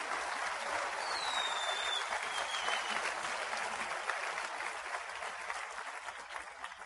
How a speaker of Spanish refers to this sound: Sí, vamos a aplaudir por el ambiente, vamos a aplaudir por el ambiente.